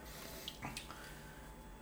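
A small splash of water trickles briefly into a glass of whisky, a quick pour with a faint clink, set against quiet room tone.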